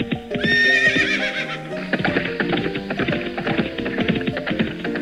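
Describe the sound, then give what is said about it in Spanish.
A horse lets out a loud whinny with a high, wavering pitch, followed by a steady run of clopping hoofbeats and busy background noise. “Pobre caballo, lo tiene todo muerto de sed.”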